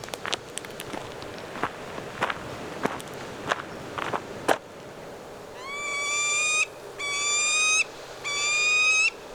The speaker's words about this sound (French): Et dans les falaises, il y a le faucon pèlerin, euh, le hibou grand-duc, qui est le plus grand oiseau euh, de proie nocturne.